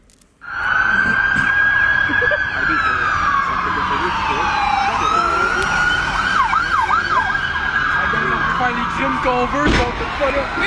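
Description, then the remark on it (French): Police sirens wail loudly and continuously at the end of a car chase, with a long rising-and-falling tone shifting into a faster yelping pattern, over a background of traffic noise. “je te fais écouter un extrait parce que la fin de la poursuite a été captée par un gars qui a entendu les sirènes, qui s'est mis à filmer.”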